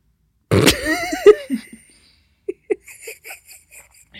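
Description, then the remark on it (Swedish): A sudden wet, spluttering burst with a strained, wavering vocal sound as someone pours coffee over their whole face, followed by a few short gasping coughs and faint clicking noises. “Förlåt, jag hällde kaffe över hela mitt ansikte.”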